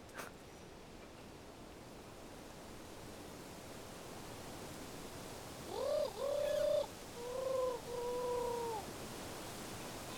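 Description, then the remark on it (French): Over a steady hiss, a voice attempts to imitate a turtle dove's cooing at the Roche Percée, with a few short, hollow, wavering coos falling in two quick groups near the end, clear. “Tentative de tourterelle à la roche percée.”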